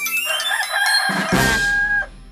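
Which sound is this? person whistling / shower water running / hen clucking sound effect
hen clucking sound effect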